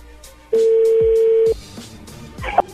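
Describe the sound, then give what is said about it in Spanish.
A telephone touch tone sounds once as a number is dialed again, a loud, steady electronic beep lasting about a second, followed by faint clicks and quiet line noise, with no talking. “A ver, márcala de nuevo, de una vez.”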